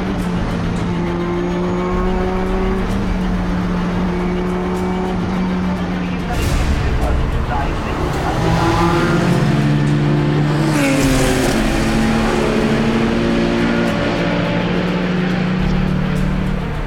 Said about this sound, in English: Just a few hours completed in the 24 hour endurance race, Subaru is in the heat of the battle. The car is running perfectly, and the lap times are on point.